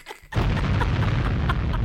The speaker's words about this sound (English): Another explosion.